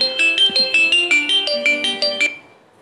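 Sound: phone ringtone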